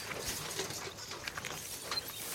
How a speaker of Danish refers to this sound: Det her er lyden af et gammeldags landbrug. Og sådan lød det mange steder i Danmark efter befrielsen, hvor man brugte hestevogne og høtyve i stedet for majtærsker og andre moderne maskiner i landbruget.